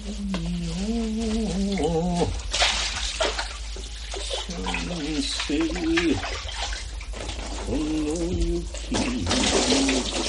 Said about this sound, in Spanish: Ella se anuda el kimono a la cintura, coge un barreño y lo llena con agua limpia.